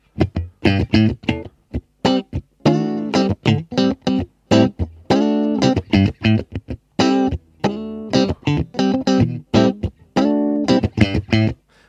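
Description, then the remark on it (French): Electric guitar strums out a choppy rhythm part of short, clipped chords with abrupt silences between them, played with the reverb turned off. The tone is dry with no reverb tail, fairly loud, and nobody speaks. “Et après, il faut, selon ce qu'on fait, même si on fait une rythmique, je vire la reverb, je sais pas moi, hein, euh”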